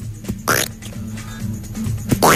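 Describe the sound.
Short sputtering raspberry bursts of air forced by a person through puffed-out cheeks (a 'flat whistle'), a wet fart-like mouth noise repeated a few times, fairly loud with a low buzzing rumble underneath.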